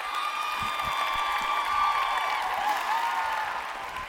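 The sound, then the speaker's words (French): An audience applauds steadily for about four seconds, a dense, even patter of clapping with a thin sustained tone ringing over it and no speech. “On peut applaudir pendant qu'on le fait.”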